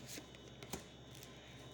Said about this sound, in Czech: Eh, já tahám další karty.